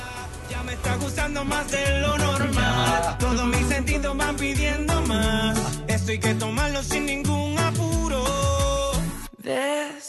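A loud, full pop song plays with a steady beat, bass and layered melodic lines, continuing without talk before briefly cutting out near the end.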